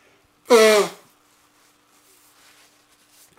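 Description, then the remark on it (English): A single loud, forceful nose blow, about half a second long, with a honking, buzzy tone, followed by near silence and a little faint rustling. “I gotta blow my nose here, I decided.”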